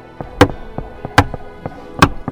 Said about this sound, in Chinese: 于是他在地牢的一个角落挖下了一块因为潮湿而松动的石块，然后用这个石块来敲击墙上声音听得最清楚的地方。